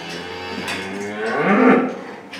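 A cow moos loudly in one long, drawn-out call that rises and swells in the middle before tapering off. No voices.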